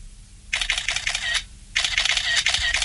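Two quick bursts of rapid-fire iPhone camera shutter clicks in burst mode, eleven photos taken in half a second, each a dense, crisp rattle lasting about a second, separated by a short pause. Fairly loud, with no talking.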